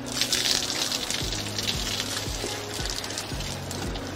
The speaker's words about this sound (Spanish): Esta agua que está corriendo se va a los drenajes, son independientes de del agua que se introduce al área de producción. No hay ningún riesgo de que contamine este, la, la fuente de agua.